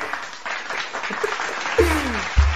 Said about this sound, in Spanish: Y unos aplausos para cerrar.